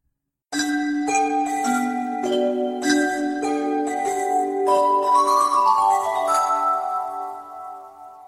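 Small bells lining a girl's cloak tinkle and jingle in a rapid, overlapping cascade of bright, high chiming strikes, ringing steadily for several seconds before the tones fade out. No voices are heard.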